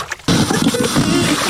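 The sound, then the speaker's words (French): Water sloshes and splashes in a continuous churning wash, made by hands stirring up waves, starting abruptly after a brief quiet moment and staying fairly loud throughout. “Je fais des vagues avec mes mains.”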